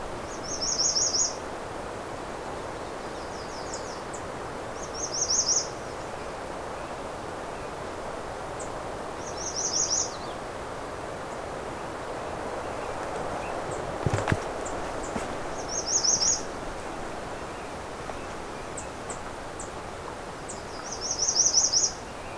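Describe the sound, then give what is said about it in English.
An American redstart sings loud, high, buzzy phrases about every four to five seconds, clear above a steady outdoor hiss, with a soft rustle or footstep midway. “This may be one of the loudest redstarts I've ever come across.”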